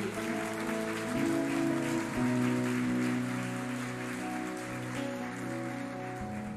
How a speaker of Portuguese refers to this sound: Aplauda bem forte se você pode.